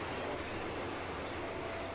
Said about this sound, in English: Oh, hang on, the train's still going. Train's still going.